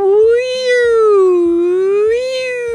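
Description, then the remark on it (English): A person's voice imitates a police siren, holding one loud, sustained wail that swoops up and down in pitch a couple of times, with no words spoken. “And just then they heard some sirens and it went,”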